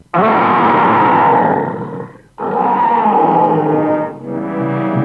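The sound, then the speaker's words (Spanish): A boy imitates a bear's roar in three loud, sustained bursts, the first long and rough, followed by two shorter growling roars with brief breaks between them. “Ahora dame un buen rugido de oso. Espántame.”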